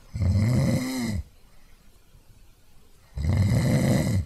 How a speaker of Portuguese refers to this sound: Seguiu o som do ronco e encontrou o lobo lá, bem roncando.